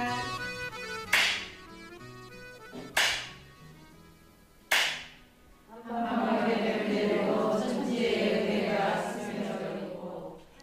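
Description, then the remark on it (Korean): A Korean bamboo clapper (jukbi) strikes three times to open a cooking class on a fine autumn day, each a sharp, bright wooden crack spaced evenly about two seconds apart, over a soft tonal background, before a louder, denser wash of sound takes over. “날씨 좋은 가을날 죽비 소리와 함께 음식 수업이 시작됩니다.”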